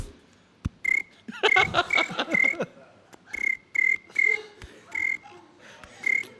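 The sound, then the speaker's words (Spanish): A person imitates a cricket with their voice, making a series of about nine short, shrill chirps in an uneven rhythm. The chirps are close and fairly loud, with a denser flurry early on. “Grillo.”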